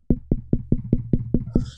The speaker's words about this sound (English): You shouldn't be going and knocking on people's door